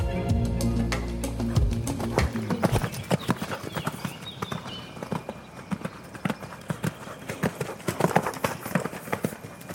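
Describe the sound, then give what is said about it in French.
A horse trots at a steady pace in a riding arena during a riding lesson, its hooves thudding in a quick, regular clip-clop that stays fairly loud throughout, with a low droning tone briefly underneath at the start. “Essayez d'avoir les rênes plus courtes, pas plus de vitesse, mais que les chevaux ils se poussent davantage.”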